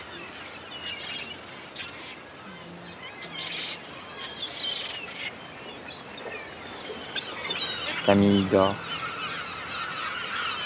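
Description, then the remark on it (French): A large flock of gulls calls repeatedly under a blue sky, with one loud squawking cry rising above the rest near the end. A voice speaks briefly. “Il y a énormément de mouettes.”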